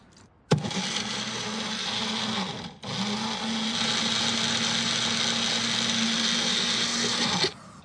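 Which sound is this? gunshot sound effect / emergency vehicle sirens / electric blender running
electric blender running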